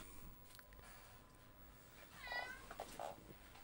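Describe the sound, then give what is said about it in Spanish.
A cat named Fedora meows twice, a drawn-out rising cry followed by a shorter one, against a faint background hum with no one speaking. “Oye, es que darle comida a la fedora, weón.”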